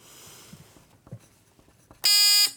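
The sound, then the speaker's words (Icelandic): After a quiet stretch of faint rustling and soft knocks, a quiz team's loud, harsh buzzer bell blares for about half a second, a steady electronic tone with a rich, raspy stack of harmonics. “Hvernig hljómar ykkar bjalla?”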